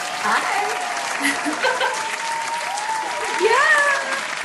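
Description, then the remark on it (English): A crowd applauds steadily for several seconds, a dense, continuous clatter of clapping with a few bright whistles rising above it near the end. “the bio or the applause?”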